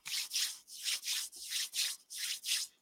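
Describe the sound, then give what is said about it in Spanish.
Rhythmic fabric rubbing of a phone in a trouser pocket, recorded by the phone's microphone as its owner walks, with about seven soft swishing strokes in a steady back-and-forth pattern, fairly quiet, no voices. “si tienes el teléfono en tu bolsillo, donde está el micrófono de tu teléfono y estás caminando, ¿qué va a pasar con el teléfono? Va a frotar contra la tela del pantalón”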